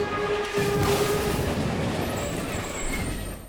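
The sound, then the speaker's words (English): A train wreck sound effect: a loud, continuous rumble of rail cars with high metallic screeching and squealing tones layered over the clatter, with no voices. “So, what sound effect will you be choosing from the following? A complete train wreck?”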